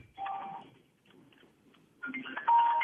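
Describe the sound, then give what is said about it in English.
A burner mobile phone rings with a bright electronic ringtone: one short melodic burst, a pause, then a second, louder burst that cuts off. No one speaks over it. “You got the burner ringing.”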